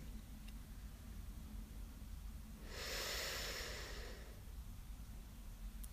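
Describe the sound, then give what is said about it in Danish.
A single long, continuous inhalation through the nose during a guided breathing exercise, a soft, steady rush of air lasting about a second and a half, against a quiet background with no talking. “Så nu trækker du vejret ind igennem næsen i en lang, sammenhængende indånding, uden at du forserer noget, men at du måske gør indåndingen lidt længere, end du er vant til.”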